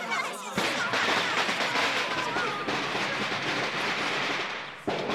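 A long string of firecrackers set off in a bridal sedan chair at a wedding in Taiwan bursts into a dense, loud crackle of rapid pops that runs steadily for about four seconds, then cuts off abruptly.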